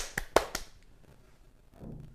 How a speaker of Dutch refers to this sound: Even klappen.